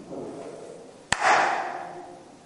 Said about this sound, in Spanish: Una palmada. Ahora pregunto, ¿en qué se transforma el sonido de la palmada cuando yo le doy a mis manos y rebota?